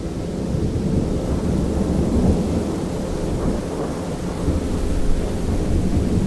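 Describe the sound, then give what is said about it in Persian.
A deep, continuous rumble of thunder with lightning rolls on steadily for several seconds, loud, with a rain-like hiss running underneath and no voices. “صدای رد و برق که اومد خودم اومدم”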